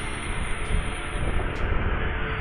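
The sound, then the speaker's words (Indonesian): A Honda 250cc sport motorcycle engine roars steadily in the enclosed, echoing Pasir Belanga road tunnel, a dense, continuous drone that stays loud for the whole stretch, with no voices. “ya Honda deh ya Honda BBR no BBR dua setengah suaranya enak ya kedengeran nggak suaranya kalau kedengeran suaranya enak”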